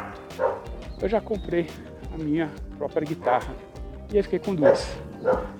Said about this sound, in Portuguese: Eu vou interromper porque tem um cachorro latindo bem aqui. Eu mudei o horário da caminhada. Tem mais cachorro latindo hoje.